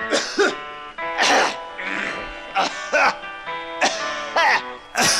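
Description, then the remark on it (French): A man clears his throat over and over during the intro of a song on its original studio recording, about half a dozen rough, raspy bursts in close succession, loud, with a faint sustained musical tone lingering beneath. “tenter de s'éclaircir la gorge pendant l'intro du morceau”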